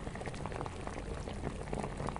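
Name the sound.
water boiling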